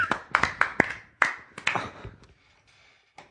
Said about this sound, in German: Warm, warm Applaus.